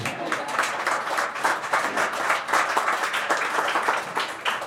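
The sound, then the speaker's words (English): A live audience breaks into steady applause, dense overlapping claps at a fairly loud, even level for several seconds with no one speaking. “You can clap, by the way.”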